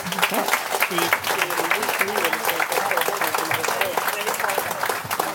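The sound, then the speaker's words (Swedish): Steady, dense applause from an audience thanking guests at the close of an event, many hands clapping at once for several seconds, with a few voices murmuring underneath. “Så en varm applåd.”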